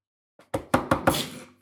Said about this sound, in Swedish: Så varsågod, eh, knacka på.